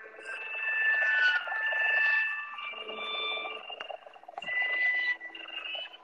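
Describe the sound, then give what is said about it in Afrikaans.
High-pitched, warbling music meant for cats plays from a phone app through the phone speaker, with thin sustained tones that shift and slide for several seconds at a moderate level. “Ja, luister hier, so nou laat ek kyk kyk of ek die kat musiek kan speel want wat gebeur het is my app en hoe dit sien.”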